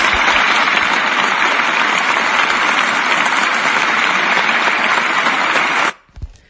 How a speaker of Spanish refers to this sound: Aplaudan de pie. Vamos a aplaudir de pie. Dale.